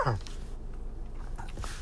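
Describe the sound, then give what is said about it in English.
A single short, harsh cough bursts out at the start, then the sound drops to quiet breathy noise and faint murmuring for the rest. “excuse me while I cough.”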